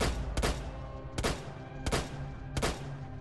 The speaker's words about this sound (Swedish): Hon drog fram en pistol och avlossade åtta skott mot Klaus.